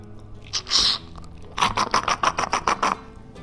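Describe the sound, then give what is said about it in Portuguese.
A mate gourd gurgles as the straw drains on a bright morning: a short hissing draw, a brief pause, then a quick run of about nine raspy, bubbling slurps at a steady rhythm, with no talking. “Roncou o nosso mate nesta manhã de muita luz”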